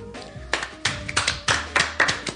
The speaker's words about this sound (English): Mike Piazza and Ken Griffey Jr. got elected to the Hall of Fame. Let's clap it up.